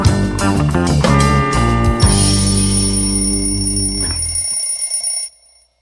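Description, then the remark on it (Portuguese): A loud alarm clock rings, a bright, metallic jangle of bell tones sustained for about five seconds before cutting off abruptly into silence, opening a Monday morning news program on Ópera Mundi. No one speaks. “O despertador tocou e hoje é segunda-feira, já é dia 9 de outubro”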